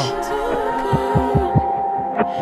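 A thumping heartbeat effect, paired low beats pulsing steadily over a sustained musical drone, prominent, with no one speaking.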